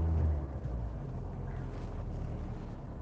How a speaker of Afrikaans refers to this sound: So vir oggend se podcast word weer eens in die kar opgeneem en ek hoop dit is steurend nie. Ek bid sommer dat ja, dat God al die steurnisse vir ons af verwyder, dat jy net na die boodskap kan luister.